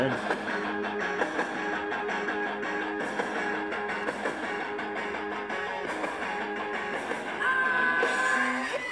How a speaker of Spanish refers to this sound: Sigamos nuestra mañana con este grito de …